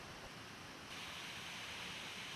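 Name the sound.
waterfall rushing water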